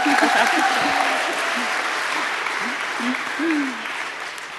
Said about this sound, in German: grüßt ihr sie genauso mit so einem lieben Applaus